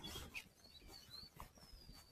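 A Japanese bush warbler sings faintly around a house on a windless day, a few thin, high whistled notes drifting over quiet outdoor background noise, with no one talking.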